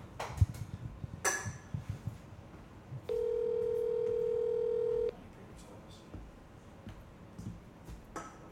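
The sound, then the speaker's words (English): A single long telephone ringback tone, about two seconds, sounds through a speakerphone during a cold call, with a steady electronic hum, surrounded by faint room noise and a few soft clicks and knocks. “Okay, so you see, it's um, it's two cold cold calls in a row we were trying to figure out why.”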